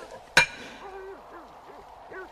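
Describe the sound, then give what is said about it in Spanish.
A single sharp, ringing metallic strike of a hammer hitting a nail on a hard stone slab, loud, followed by quieter wavering vocal sounds and no further blows. “Eh, apoyaré el clavo en este lado y comenzaré a golpear.”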